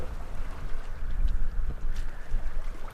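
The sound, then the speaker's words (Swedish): A long boat's engine putters steadily as it heads out from the shore under blazing sun to check fishing nets on Lake Turkana, its low rumble continuous beneath gusting wind and faint water noise, with no voices present. “Solen gassar när den långa båten puttrar ut från stranden.”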